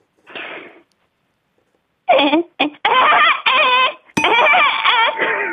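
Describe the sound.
A human voice mimics a laughing woodpecker, starting with a short breathy burst, then a pause, then loud, rapid, cackling bird-like calls that rise and fall in quick rhythmic bursts.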